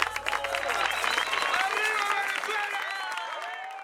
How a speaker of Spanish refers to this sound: Un aplauso a todos ellos.